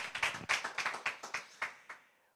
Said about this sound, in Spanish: Come on, give the Lord a hand clap if you believe it. Dale un aplauso si tú lo crees.